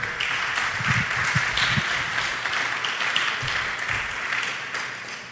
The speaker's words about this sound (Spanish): Deles aplauso al Señor bien fuerte.